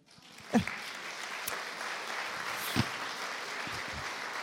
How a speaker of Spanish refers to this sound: Hasta me gustaría que me acompañara a darle un aplauso a mi suegra.